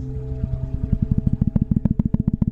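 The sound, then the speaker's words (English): A voice imitates footsteps with rapid, rhythmic mouth sounds that start soft and steady, then grow louder and quicker, like someone breaking from a jog into a sprint. “And I remember hearing the footsteps turn into jogging, turn into sprinting sort of, I'm going to do it on the microphone, so I don't know how this is going to sound, but sort of like this.”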